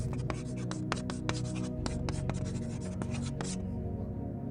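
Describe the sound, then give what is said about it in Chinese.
Chalk scrapes across a blackboard in a quick series of short, scratchy strokes, roughly a dozen uneven bursts over a steady low hum, then the writing stops and only the hum remains. Part of an immersive restaurant's soundscape, played with images of a teacher and students on the wall. “树林、鸟鸣、粉笔划过黑板的声音”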